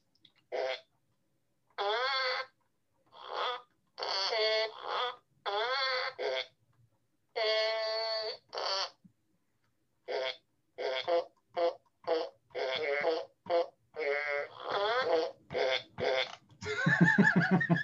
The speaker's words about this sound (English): what other songs you got in works on that little fart piano there?